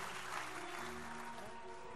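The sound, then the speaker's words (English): A crowd claps together after a prayer, in a steady wash of dense hand claps, with sustained tones humming underneath and no voices speaking. “Please clap your hands and be seated.”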